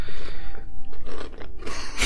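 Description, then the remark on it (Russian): Loud crunching as someone chews something crisp, a run of irregular crackly bites over about two seconds, with no talking. “Ты хрумкой, хрумкой, не переживай.”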